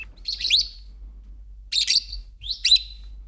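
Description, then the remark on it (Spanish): Three bursts of shrill, high-pitched chirping from lovebirds (Agapornis) at a bird beauty contest in Spain, each lasting about half a second, clear over a low steady hum, with no voices. “Agapornis.”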